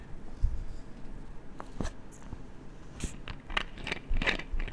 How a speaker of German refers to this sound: Also, dies ist der Boden einer ja natürliches Mineralwasserflasche Medium. Dies ist der Deckel einer ja Mineralwasser Flasche Medium. Wir öffnen jetzt den Deckel.